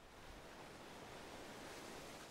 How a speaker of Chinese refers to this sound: 海浪拍打沙滩的声音，让你感到心情平静，好像可以忘记脑海中的一切。